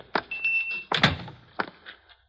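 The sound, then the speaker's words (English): A door opens with a brief high-pitched hinge squeak, then swings shut with a solid thud followed by a lighter knock. It is fairly loud, with no voices. “Here, in this door, Effendi.”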